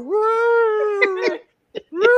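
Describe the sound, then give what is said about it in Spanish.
A female cat named Nina, in heat, yowls in a long, drawn-out, wavering wail, breaks into a few short choppy cries, then starts another rising howl, in an empty, echoing living room. Loud, with no other sounds around it. “Cuando quito los audífonos, escucho a la gata estúpida esta y yo, cabrona.”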